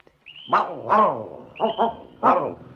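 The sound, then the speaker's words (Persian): Two dogs named Nappy and Luffy, who guard a farm outside town, bark in short, sharp bursts, about five loud barks in uneven pairs, some with a brief high whine leading in. No one speaks. “و اما در خارج شهر مزرعه بود که دو تا سگ باهوش و شجاع به اسم ناپی و لافی از اون مراقبت میکردند”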